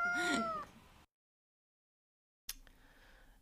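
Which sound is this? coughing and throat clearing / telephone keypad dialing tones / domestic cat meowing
domestic cat meowing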